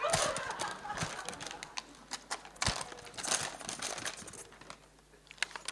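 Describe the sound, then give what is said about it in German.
A plastic bag crinkles and rustles as items are pushed into it, with dense, irregular crackles and a few sharper bursts throughout, and no one speaking. “Noch eine Sünde. Du kommst rein in meine Tüte.”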